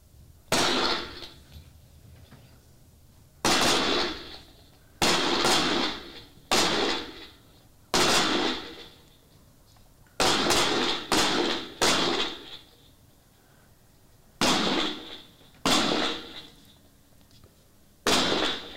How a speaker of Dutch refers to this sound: En dan doen we drie, eh, vanaf van achter een dekking doen we drie schoten staand. Eén schot geknield, dan ga je staan. En dan naar de andere, kant.